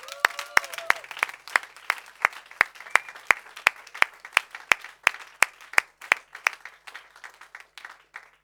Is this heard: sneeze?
no